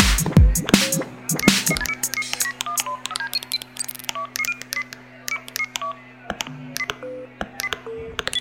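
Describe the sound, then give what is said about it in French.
A rapid run of telephone keypad tones, short electronic beeps of shifting pitch pressed one after another in an uneven rhythm, clear over a steady low hum. “Le gros, porte-moi ton téléphone, le gros. Faut que j'appelle ma blonde.”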